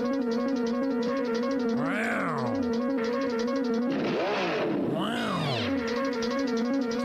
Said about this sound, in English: the Mach 5 revving its motor. Pops Racer designed it.